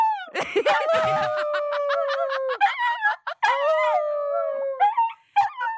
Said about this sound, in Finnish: Tai itse asiassa au, koska nämä ei hauku, vaan nämä vaan ulvoa. Ai niin, kato, se tulee siellä.